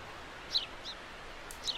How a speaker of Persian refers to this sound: یه پرنده کوچولو هم اومد نشست رو شاخمون